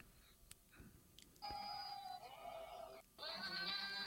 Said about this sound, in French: Alors, c'est cette fameuse vidéo euh, avec le générique de Game of Thrones et que des chèvres. Tout à fait, c'est le générique de Game of Thrones repris par des chèvres